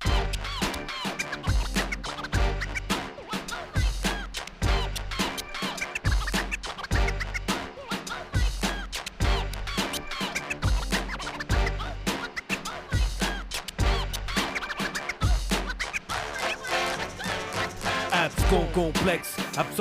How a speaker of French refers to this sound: On va écouter maintenant la version de 2003, donc un an plus tard on a changé la musique et on a reposé.